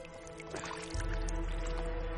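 Cloth being wrung out in river water, with continuous splashing, dribbling and squishing over a steady low outdoor rumble that swells slightly partway through; the water turns red. No voices.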